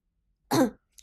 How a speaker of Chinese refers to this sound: 于是苏哲咳嗽一声，说道：